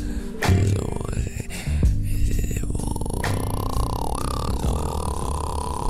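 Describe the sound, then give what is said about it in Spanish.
A person imitates a cat's purr, holding a steady, throaty low rumble for several seconds with slight shifts in tone, fairly loud, with no other sounds. “porque hoy es un escuchás rondonear. Como ronroné. ¿Querés que te rondoné? Ronroneame todo.”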